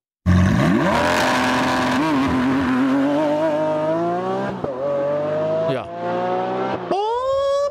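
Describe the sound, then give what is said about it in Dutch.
A powerful Lamborghini Aventador SVJ 6.5-litre V12 engine revs hard and climbs steadily in pitch, with quick gear-shift dips, then a final sharp rev near the end, loud with no one speaking. “Eh, en je hebt natuurlijk ook die Aventador SVJ. Dat is een 12 een V12. 6,5 liter V12.”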